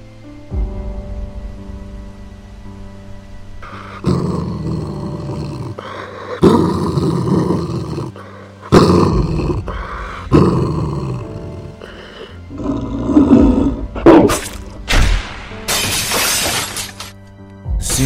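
A hellhound and a bear growl and roar as they fight, loud, with bursts of snarling broken by sharp crashing impacts that grow more violent toward the end, while the first snow of the season falls.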